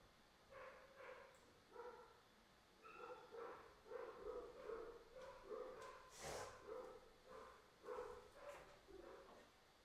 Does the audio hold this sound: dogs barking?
yes